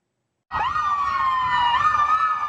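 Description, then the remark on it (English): An ambulance rushing to a hospital in Louisville sounds its siren. It starts abruptly and wails loudly, its pitch sweeping up and down in a continuous warble with strong harmonics, with no speech. “When we arrived in Louisville, ambulances were rushing to hospitals only to wait almost an hour to drop off patients because emergency rooms were full.”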